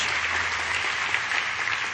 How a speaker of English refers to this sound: Now, some of you are clapping. They, they, they, you're clapping like you're at a tennis match. Church, if you're going to clap, clap.